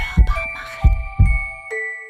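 Deep, muffled heartbeat thumps pulse three times, layered over sustained shimmering chime tones, with a bright bell-like ding near the end and no talking; a heartbeat sound effect in a Wunderwerke Audio jingle.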